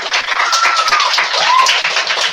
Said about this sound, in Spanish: Y atrás tenemos, atrás de la cabina, a ver esos aplausos, que se vean.